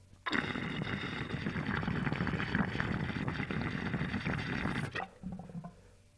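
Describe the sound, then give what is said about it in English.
Loud, frothy water bubbling through a handmade glass bubbler pipe, a dense steady gurgle lasting several seconds before cutting off sharply, followed by a brief, softer trickle. “I'm trying to have 20 of these bubblers for Sunday sale”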